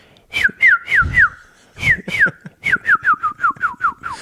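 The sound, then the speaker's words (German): A person whistles an imitation of a blackbird song: a run of quick, descending whistled notes in two bursts, then a faster string of repeated falling chirps, fairly loud with breathy noise underneath. “Nein, ich kann eine Amsel.”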